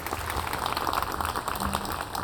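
A church audience applauds the Claretian priests steadily, a dense wash of many hands clapping together at moderate volume, sustained through the whole moment with no one speaking over it.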